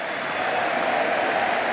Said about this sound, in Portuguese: Mais, mais um aplauso de pé, novamente, nesta sala de congresso uh, e a recolher também muitos aplausos de António Costa, uh, aplaudir muito veemente na altura das medidas da habitação e é agora novamente.